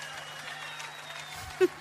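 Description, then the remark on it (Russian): Steady crowd applause, a dense wash of many hands clapping at an even level throughout, with one brief sharper sound near the end. “другим людям похлопать. Пускай хлопают.”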